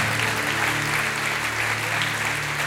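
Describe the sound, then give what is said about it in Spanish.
Sustained applause for the Lord from a large audience at a religious service, a dense, steady wash of clapping at an even loudness throughout, with a faint low hum underneath and no speech. “Démosle fuerte ese aplauso al Señor por ellos.”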